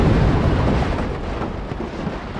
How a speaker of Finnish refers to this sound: Lisää lohkareita tipahtelee.